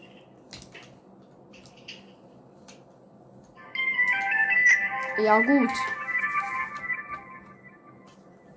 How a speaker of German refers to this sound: Was ist das? Okay, ist ein Alarm.